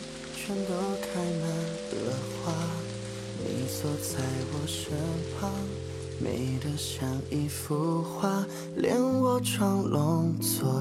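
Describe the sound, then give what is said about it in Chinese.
Steady rain patters on a window in a dense, continuous crackle, while sustained music with slowly shifting chords plays over it throughout. “而此刻下了雨，雨打在窗户上，透着风，偶尔渗进来一两滴。他听着雨声噼啪作响，觉得很宁静。”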